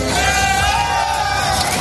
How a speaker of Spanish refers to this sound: Así suena el momento en el que uno de los tractores que participan en la protesta vuelca un camión con frutas y hortalizas españolas.